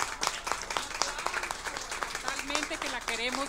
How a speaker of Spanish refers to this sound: Muchas gracias. Un aplauso, gracias, gracias.